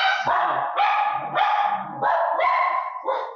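Dogs barking in a loud, rapid series of about six overlapping, drawn-out barks that run together almost without pause. No one speaks.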